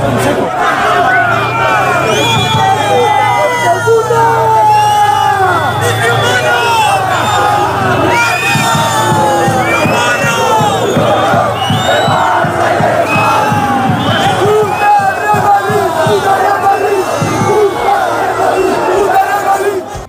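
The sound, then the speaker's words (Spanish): A large crowd of football fans, including racist insults, shouts and chants loudly and continuously at the arrival of the Real Madrid team bus, many voices overlapping in a dense, roaring mass of yelling that never lets up. “se escucha Vinicius Mono, y eso es racismo”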